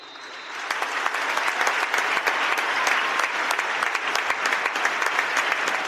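A large stadium crowd of both sets of fans claps steadily in a minute's applause tribute before a football match, thousands of hands blending into a dense, sustained roar of applause that swells slightly at the start and holds without any voices.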